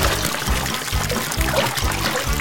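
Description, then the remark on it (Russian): Water is sloshed and churned in a basin to whip up foam, with rhythmic swishing strokes about twice a second, steady. No voices. “Попробую взбить пену в своем тазу.”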